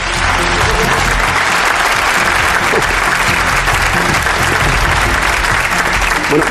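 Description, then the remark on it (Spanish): Loud, sustained applause from an audience welcoming television presenter José Miguel Monzón, El Gran Wyoming, a dense wash of many hands clapping steadily throughout with no pauses or spoken words. “Recibamos con un fuerte aplauso a José Miguel Monzón, el Gran Wyoming.”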